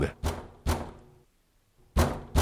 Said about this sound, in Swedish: sluta slå på dörren.